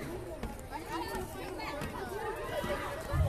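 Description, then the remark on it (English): A group of boys chatters in the background, their overlapping voices forming a steady babble with occasional livelier bursts and some faint movement. “You might hear them in the background.”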